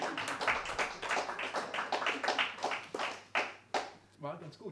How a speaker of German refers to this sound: Er zaubert ein befriedigendes Lächeln auf die Lippen des Publikums. Applaus! Applaus! Das wäre jetzt so eine Stelle. Applaus!